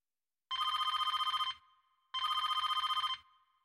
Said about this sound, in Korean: 그때 전화 한 통이 걸려옵니다.